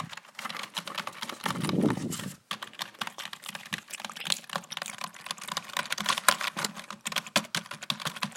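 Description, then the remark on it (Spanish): Rapid, continuous ASMR typing on a computer keyboard, crisp, with dense clicking keystrokes throughout and a brief muffled rustle near the start. “que el teclado sea más relajante.”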